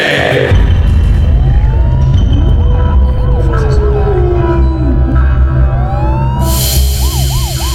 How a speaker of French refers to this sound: il y a un petit truc nouveau, là, un peu d'écho, un peu de. J'ai entendu les loups hurler derrière, C'est bizarre, ça.